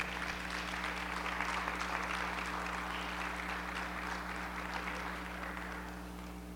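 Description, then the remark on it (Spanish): An audience claps together in a sustained burst of dense, crackling applause that holds steady for several seconds before slowly tapering off, with a low steady hum underneath. “¿Le podemos dar un aplauso al Señor, por favor?”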